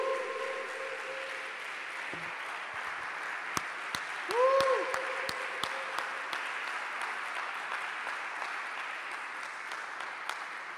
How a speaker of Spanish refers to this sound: Un aplauso para el Señor.